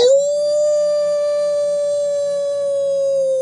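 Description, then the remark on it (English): A single long wolf howl sound effect closing an Earwolf Media production rises briefly at the start, then holds one steady, clear, loud pitch for several seconds, alone with no voices. “The wolf dead.”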